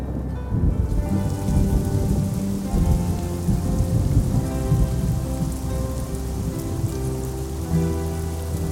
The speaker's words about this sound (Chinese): 大雨一连下了八天，从早上下到晚上，又从晚上下到早上。